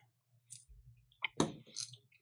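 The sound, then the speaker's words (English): Quiet chewing of crunchy seasoned chicken cereal pieces, a few irregular crackling crunches and soft wet squishes over about two seconds, with no one talking. “I've already had it, so I'm I'm waiting for them to finish their chew.”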